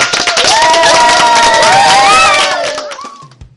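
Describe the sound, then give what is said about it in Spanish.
A loud burst of cheering and clapping from a group greeting fifth-grade class B, with many high young voices shouting and whooping over the applause, fading out after about three seconds. “Un aplauso, ¿no?”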